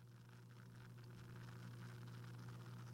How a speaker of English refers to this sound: The cap is off. The bubbles are bubbling. Up to my nose it goes for a first smell.